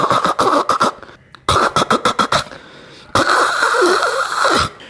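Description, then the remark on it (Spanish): A person vocally imitates the odd sound their car makes when the ignition key is turned: two bursts of quick, rhythmic puffing like an engine cranking, then a longer rough, breathy roar as it seems to catch. Loud. “Cuando prendo la llave hace como un sonido raro, hace, cuando giro la llave hace...”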